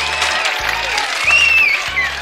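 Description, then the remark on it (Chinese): Thunderous applause from a crowd for a dung beetle's ball-pushing performance, a dense, steady clatter of clapping that swells slightly midway, with a thin high whistle rising above it for a moment. “粪金龟的推大球也都获得了如雷的掌声。”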